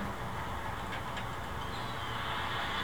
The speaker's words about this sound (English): So this is the sound of Long Beach Island. This is the waves coming in.